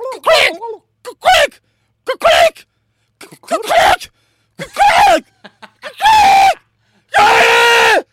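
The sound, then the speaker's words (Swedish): A person imitates a pheasant's call with a series of short, harsh vocal squawks, separated by pauses, building to two longer, loud, strained cries at the end. “Vet du hur en fasan låter?”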